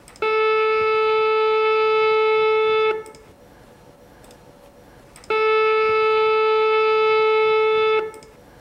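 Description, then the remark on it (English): Two identical sustained saxophone tones, each held steadily for about three seconds with a short silent gap between them; one started a moment later than the other, so they are out of phase. Loud, with no talking. “Here, I've got two saxophone tones. One started a moment later, which is out of phase.”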